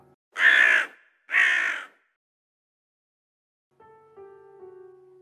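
A crow gives two loud, harsh caws in quick succession, followed by silence and then a quieter sustained tonal drone.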